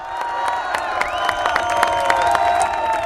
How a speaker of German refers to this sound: Zehntausende Bolivianer jubelten Anfang 2006 vor dem Präsidentenpalast in La Paz.